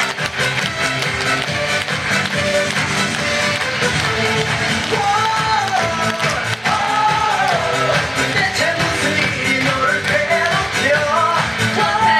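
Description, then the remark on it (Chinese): An audience claps steadily and loudly for about twelve seconds to congratulate the runner-up of a lecturer training class, a dense, unbroken wash of applause with a few rising whoops or cheers mixed in partway through. “然后这个非专业的讲师，我们的讲师班的亚军，居然讲过了所有的专业讲师，热烈掌声鼓励一下，恭喜！”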